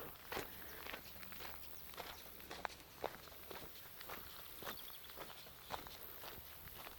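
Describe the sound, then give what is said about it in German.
A hiker's steady footsteps crunch along a gravel trail at an even walking pace, each step a crisp scrunch of loose stones, with no voices over them. “Wie du hörst, ist es ein schöner Schotterweg.”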